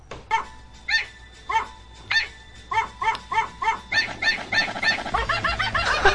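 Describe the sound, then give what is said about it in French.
Dog barks pitched to carry the Can-Can melody in a remix, yapping out a bouncy tune in quick rhythmic bursts that speed up and pile into a dense, frantic run toward the end. “Les remixes abondent et je ne résiste pas à vous faire écouter cette version revisitée.”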